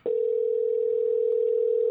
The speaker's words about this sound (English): I'm gonna call him right now. See if he picks up. Oh, you got you got Google Duo. We ain't doing that, but um, you know, see if this young man picks up this telephone.